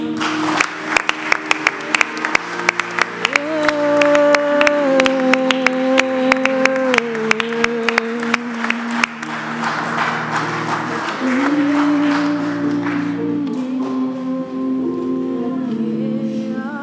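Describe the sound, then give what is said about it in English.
An audience claps hands to the Lord in a steady rhythm over sustained music with held tones, the sharp claps dense for the first half before fading out while the music carries on. “Wow, just clap your hands to the Lord.”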